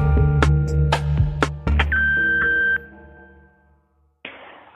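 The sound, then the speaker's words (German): A single steady answering machine beep, nearly a second long and clear, follows a few sharp percussive hits over a low hum; after a short silence, a burst of rustling noise begins. “10 Minuten habt ihr Zeit und reden könnt ihr nach dem Piepston.”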